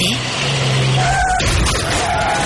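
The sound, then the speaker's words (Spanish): A car engine revs loudly, a dense roar with shifting tones that climb and fall over a couple of seconds, heard on its own without anyone talking. “Coche.”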